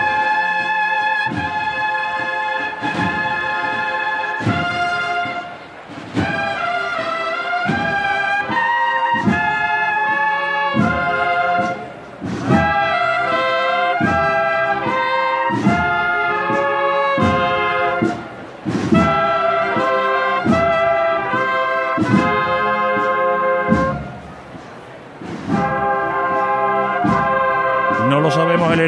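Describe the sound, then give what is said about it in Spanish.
The youth band of La Cigarrera, at the cruz de guía of the Hermandad del Amor, plays the slow, solemn funeral march Requiem in La Campana, Seville, with sustained brass chords over steady, heavy drum strokes, loud, its phrases swelling and briefly pausing every few seconds. “Suena Requiem en la campana.”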